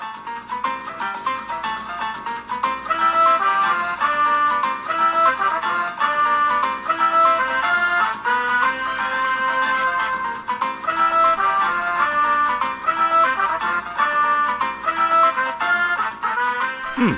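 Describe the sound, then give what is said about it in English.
Bright, upbeat soundtrack music from the video game Super Mario Sunshine plays on its own at a steady, fairly loud level, with a bouncy repeating melody over layered accompaniment and no voices. “Let's let's have a little listen of some of the music out of that.”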